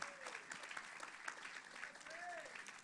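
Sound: audience applauding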